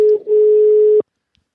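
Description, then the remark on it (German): A single steady telephone ringing tone, loud, holds one pitch for about a second with a tiny stutter near the start, then cuts off into silence, as a phone call is being placed. “Ja, ich, jetzt muss ich wieder das Telefon so rüberlegen.”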